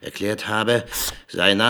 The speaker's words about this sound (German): Was ist denn dieses Ksch? Das ist das Geräusch vom dicken Filzstift, mit dem alle Namen durchgestrichen wurden.